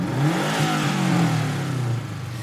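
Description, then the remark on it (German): A combustion car engine revs with a steady mid-pitched roar, its tone rising and falling slightly, then easing off near the end. No one speaks. “Noch ist Öl einer der Rohstoffe, mit denen wir unsere Fahrzeuge antreiben oder Häuser heizen können.”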